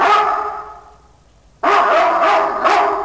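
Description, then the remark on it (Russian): A cartoon-style dog barks loudly in two bursts, the first fading into a brief quiet before a sudden, sustained run of bright, yappy barks with a slight echo: the sound of Sharik the dog from the cartoon Prostokvashino. “Звук шарика из Простоквашино. Такое эхо.”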